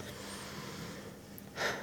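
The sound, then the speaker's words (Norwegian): Quiet hiss, then near the end one short, sharp intake of breath, a deep breath taken on request. No one speaks. “Så akkurat nå, hvis du kan ta et dypt pust”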